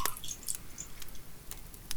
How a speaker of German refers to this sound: würdest du mir ein Glas Eistee einschenken? Aber natürlich. Wunderbar.